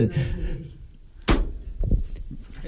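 A CD case is plonked down on a table with one sharp, hard clack, followed by a couple of softer knocks as it settles. Faint voices murmur in the background.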